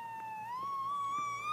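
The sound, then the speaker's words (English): An emergency siren wails outside a residential building, a sustained tone slowly rising in pitch, steady and moderately loud, with no voices. “I am so tired of hearing sirens outside my door.”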